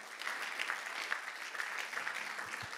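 An audience at a baptism applauds steadily as two people are brought onto the stage, a dense wash of many hands clapping at an even level throughout with no voices standing out.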